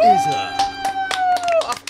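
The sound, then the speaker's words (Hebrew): Thin, scattered audience clapping at a metal quiz: a few uneven, irregular claps rather than full applause, heard alongside a steady, sustained tone that rises slightly and holds before fading. “איזה כפיים חרא, בוא נעשה את זה עוד פעם.”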